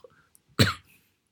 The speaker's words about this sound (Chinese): 我真的快咳嗽咳死了。